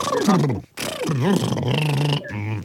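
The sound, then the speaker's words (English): A person vibrates their lips in a voiced lip trill imitating a horse, a buzzy, fluttering sound that slides up and down in pitch across a few quick bursts with a brief pause. “How do we create the sound with our lips? It's just vibrating your lips.”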